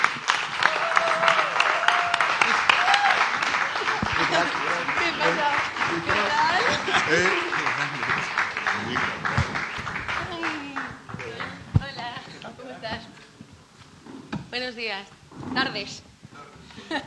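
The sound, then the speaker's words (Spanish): Sustained audience applause for actress Clara Alvarado of La Casa de Papel as she enters the show's stage, a dense wash of many hands clapping that runs the whole length, with voices and cheers mixed in and the clapping thinning slightly toward the end. “Fuerte aplauso a Clara Alvarado, por favor.”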